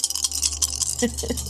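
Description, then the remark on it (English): A handful of dice rattle and clink together in a dense, continuous clatter lasting over a second, fairly loud, with a brief voice murmuring underneath toward the end. The dice are rolled for the damage of a two-handed longsword attack. “All the dice.”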